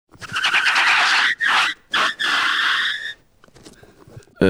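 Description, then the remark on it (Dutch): Squealing, tyre-like screeches made by rubbing a rubber hot-water bottle, mimicking skidding car tyres: a long high squeal, two short bursts, then another sustained squeal, followed by faint rubbing. “Slippende banden met een rubberen waterkruik.”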